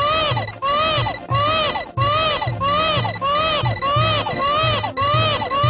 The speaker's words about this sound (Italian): Yoshi ha energia infinita, quindi se viene colpito non muore ma semplicemente perde il Baby Mario dalla propria schiena che verrà posto su una bolla e comincerà a piangere, un pianto che sentirete anche adesso.